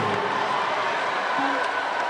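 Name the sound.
audience applause and cheering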